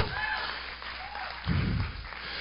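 An audience claps steadily in a dense, continuous patter of many hands, with crowd voices mixed in and a low thumping swell midway through.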